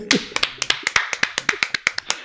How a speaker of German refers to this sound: Alter, zum Stichwort, eine Runde Applaus, zum Stichwort,